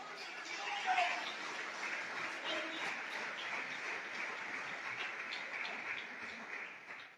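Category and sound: crowd, audience applauding loudly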